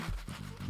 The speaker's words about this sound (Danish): jeg står med en toiletpapirsrulle i hånden. Det ja. kan jeg love. Den lyder sådan her.